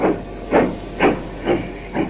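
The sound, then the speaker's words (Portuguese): A steam locomotive arriving at a cement factory in Perus, northwest São Paulo, in 1976 chuffs in a steady rhythm, five loud hissing bursts of steam about half a second apart over a continuous background hiss, with no voices. “Esse som que você está ouvindo é uma gravação original de uma Maria Fumaça chegando numa fábrica bem importante.”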